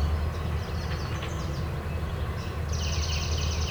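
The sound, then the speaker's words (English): A yellow warbler sings a few bright, high notes against a heavy, steady low rumble like a passing train, the song fairly faint but clear above the drone. “Yellow warbler.”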